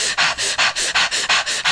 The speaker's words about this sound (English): If you've heard of that, but it's that, and I'm breathing loudly so people can hear, but. And I'll speed the breath up as I go, kind of like a train that starts off really slow.